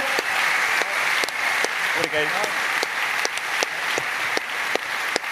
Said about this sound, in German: Und Applaus für den Draufred, dass ich heute Abend daher Merci Merci vielmals.